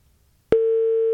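After a faint low rumble, a steady electronic telephone tone starts abruptly and holds at one pitch, loud and unbroken, the ringing tone of an outgoing call placed from a radio studio to a listener.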